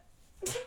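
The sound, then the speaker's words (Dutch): A single sudden sneeze bursts out after a brief quiet moment, a short, sharp, breathy blast that is noticeably louder than the faint background before it. “gezondheid”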